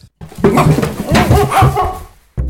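A family's two dogs bark and yip in a loud, overlapping burst lasting about two seconds, the calls jumbled together with some higher whining notes, then falling quiet abruptly.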